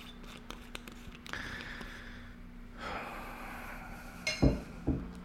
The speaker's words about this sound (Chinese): 因为我刚咳嗽了，那我现在还想喝个水。